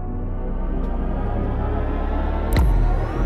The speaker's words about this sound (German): Und äh, wir können tatsächlich jetzt schon mal hier reinhören, wie der Sound von den Fahrzeugen klingt, die Hans Zimmer designt hat, soundtechnisch. Das ist er. Original-Sound, kein Witz.